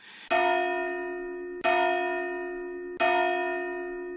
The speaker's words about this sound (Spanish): aquí en la Catedral de Valencia la campana Barbera de 1681 en la que se puede leer una frase más genérica Satán Fugo, es decir, hago a Satán, y la campana suena así.